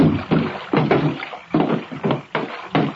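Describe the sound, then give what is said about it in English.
Water sloshing and splashing against a canoe hull as it glides in and bumps up to a wharf at dusk, with rhythmic bursts of lapping every half second or so, fairly loud. “The watch boy squatted near the edge, waiting to take the line from my canoe.”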